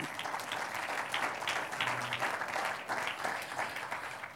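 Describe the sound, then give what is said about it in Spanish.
An audience breaks into sustained applause in praise of Jesus, a dense, steady crackle of many hands clapping at once, fairly loud and continuous throughout with no voices standing out. “Un aplauso al que vive.”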